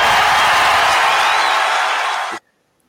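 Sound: applause sound effect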